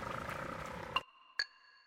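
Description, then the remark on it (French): Humpback whale song: a low, rumbling moan gives way to two sharp upsweeping cries, each trailing off into thin, sustained whistling tones against a quiet background. “Leur premier album était déjà disque d'or, ….”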